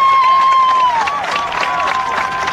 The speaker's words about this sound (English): Comes off to applause here.